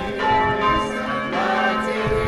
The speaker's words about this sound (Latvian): pulkstes draudze mūs sagaida ar zvanu skaņām.